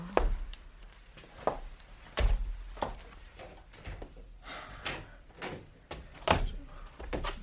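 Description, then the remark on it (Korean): A door being opened, with a run of sharp clicks, knocks and rattles spread irregularly over several seconds, fairly quiet overall and with no one talking. “은석이 문을 열다 말고 은주를 쳐다봤다.”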